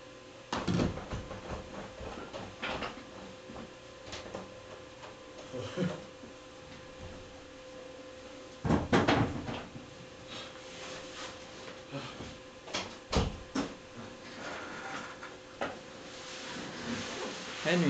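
Clunks and rattles of a door being answered and opened after a knock, with scattered knocks and shuffling movements, several louder thumps around the middle, and faint indistinct voices in the background.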